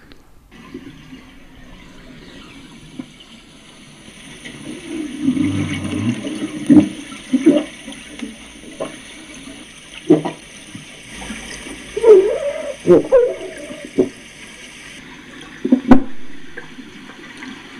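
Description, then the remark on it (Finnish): Grey seal grunts recorded underwater in surface water of the Åland archipelago: low, rough, pig-like calls come in irregular bursts over a steady wash of water noise, some fairly loud, others softer. “Eli nämä äänet ovat harmaahylkeen ääniä pintavedessä Ahvenanmaan saaristossa.”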